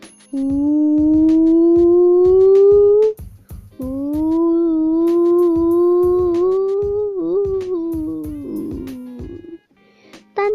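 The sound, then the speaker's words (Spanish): A voice imitates a siren wail, holding a long rising tone over a rapid pulsing beat, pausing briefly, then wailing again before trailing off into a wobbling, breaking note. “Su hermano también iba, pero de pronto que escuchó una sirena que era...”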